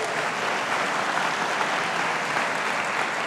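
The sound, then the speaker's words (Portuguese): Steady, dense applause from a church audience applauding the Lord, many hands clapping together at an even, sustained loudness with no voices on top, holding throughout the few seconds. “Eu sou responsável para que elas se sintam bem só os hospitaleiros aplaudam ao Senhor bem forte.”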